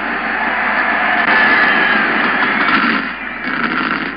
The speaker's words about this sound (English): Gentlemen, start your engine.